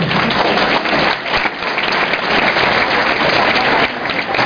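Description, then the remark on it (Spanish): Steady, loud applause from an audience clapping for themselves, a dense wash of many hands clapping that holds evenly for several seconds with no voices standing out. “Ok, un aplauso para ustedes.”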